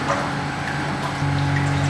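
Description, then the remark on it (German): A steady pump drones with a low motor hum over a constant rush of water being slowly pumped out of a treadmill tank, growing slightly louder and heavier partway through, with no voices. “So, jetzt gucken wir gerade das Wasser langsam wieder ab.”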